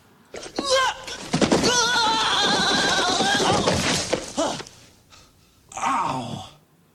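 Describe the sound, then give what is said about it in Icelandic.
A man in a scene from the film Home Alone groans and yells loudly for about four seconds, his voice wavering up and down while falling down stairs, followed after a short pause by a brief crashing thud. “Þetta hýtur að vera Home Alone Ég er nokkuð við sem um að þetta sé Home Alone, það er hár rétt, já Þetta var þegar einhver var að detta nöðu stiga yeah.”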